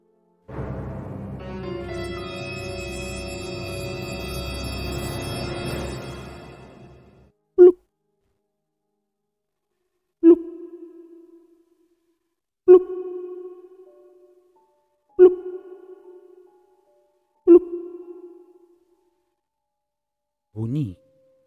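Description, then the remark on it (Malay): After several seconds of dense, humming noise, a series of about six small stones plop into river water one at a time during a fishing trip, each a sharp splash with a short ringing tail, spaced a few seconds apart. “bunyi air dilem uh, bunyi air dilempar dengan batu kecil. Ah, bukan sekali tau, banyak kali.”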